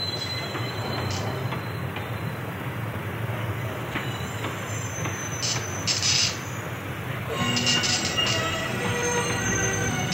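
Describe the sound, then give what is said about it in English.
A subway train rolls along the rails with a steady rumble, and high-pitched wheel squeals cut in briefly mid-way and again more strongly toward the end. “I hate waiting for the motherfucking train.”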